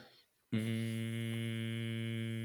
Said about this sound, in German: Das klang jetzt aber sehr hummelmäßig.